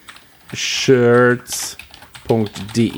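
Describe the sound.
Rapid clicking keystrokes on a computer keyboard in short irregular bursts, with a person's voice briefly sounding over the typing.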